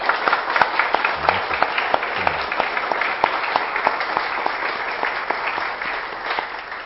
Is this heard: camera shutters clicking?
no